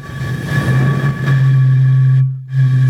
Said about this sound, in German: Achtung, das Korkengeräusch das war so geil.